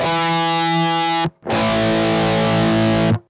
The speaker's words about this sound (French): en exemple un accord de La 5, un accord de quinte. Là-dedans, on entend d'abord un La, la note la plus grave, qui on appelle aussi la fondamentale. Ensuite, la deuxième note, c'est la quinte, et c'est elle qui va donner une sensation de puissance.